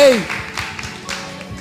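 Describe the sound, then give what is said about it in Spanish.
An audience claps and applauds in loose, uneven bursts of moderate loudness, starting just after a voice calls out with a falling tone, with voices continuing over the clapping. “¡Un aplauso!”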